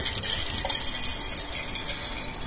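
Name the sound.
water flowing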